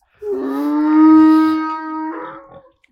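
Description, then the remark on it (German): A donkey brays once, loud: a single long, drawn-out call lasting about two seconds that shifts tone near the end before cutting off. No one speaks. “Der Esel sagt, er möchte auch im Mittelpunkt stehen.”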